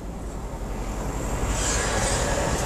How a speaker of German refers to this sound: Oh, ist ein LKW-Fahrer.